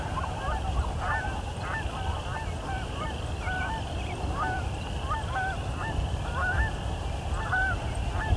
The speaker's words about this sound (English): Got a lot of Canada geese.